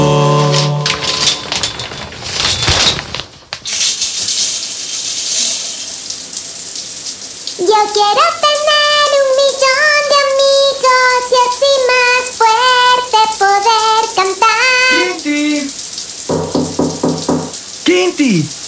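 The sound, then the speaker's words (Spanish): Steady shower water hisses throughout, with a person in the shower singing a melody over the spray through the middle and brief tonal bursts near the start and end. “ya deja de cantar y sal de la ducha o te vas a quedar sin un solo amigo a quien ver hoy.”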